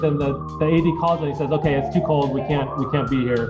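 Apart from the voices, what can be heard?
siren passing outside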